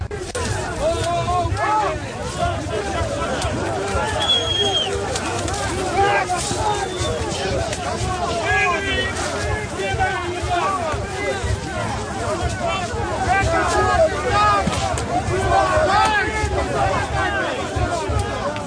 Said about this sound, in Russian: А мне там послышалось э, какие-то фоновые крики «Еда, еда». Что то Нет, это? я не знаю. Это была организация, которая называется э, вольные люди, там, или свободные, наверное, правильно перевести.